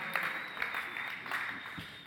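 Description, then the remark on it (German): A crowd applauding at the mention of riding the Silverstar roller coaster at Europa-Park, a steady mass of overlapping hand claps with scattered sharper claps standing out, moderately loud and sustained throughout, with no voices over it. “Also, ihr könnt ein bisschen mehr Beifall bringen.”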